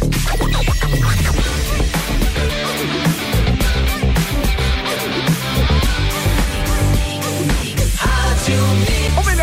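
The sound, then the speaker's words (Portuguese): Loud, energetic music plays throughout with a steady driving beat and full instrumentation, continuous and up front with no voices over it. “nessa trilha sonora que já nos empolga aí no início de semana”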